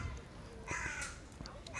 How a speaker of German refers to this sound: Der ganze Park lauscht dir, ja, außer die Krähe. Hören alle zu? Die Krähe kräht.